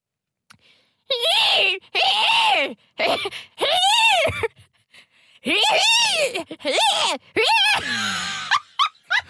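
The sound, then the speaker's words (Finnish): A person vocally imitates a zebra's call: a string of loud, strained, rising-and-falling braying yelps in several bursts with short gaps. “Mä en osaa tehdä edes hirnahdusta.”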